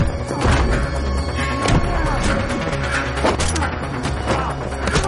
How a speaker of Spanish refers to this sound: Alguien le ataca por detrás y le coloca un pañuelo de tela en la nariz. El hombre se defiende propinando a su atacante varios puñetazos en el estómago.